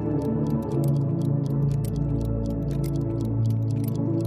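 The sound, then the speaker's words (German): Many clocks, electric and wind-up, tick at once in a dimly lit clock shop, their sharp clicks overlapping in uneven rhythms over a steady low hum, continuous throughout. “Das Licht im Laden selbst ist gedimmt. Überall tickt es.”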